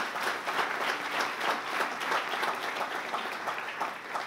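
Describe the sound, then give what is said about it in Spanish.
A church audience breaks into steady applause for the Lord, a dense, sustained patter of many hands clapping at an even loudness for several seconds with no voices standing out. “Sí, aplauda al Señor.”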